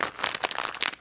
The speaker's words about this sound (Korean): 소리 아, 들리시나요? 아 이거는 씹는 소리가 정말.